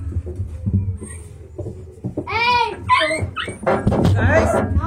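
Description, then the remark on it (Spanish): A dog whimpers and yips in a series of high, whiny cries during the second half, with quiet voices murmuring in the background. “¿Cómo se llama este perro?”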